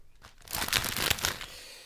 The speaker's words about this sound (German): Ich wollte auch gerade sagen, ich raschle. Du raschelst, alles klar.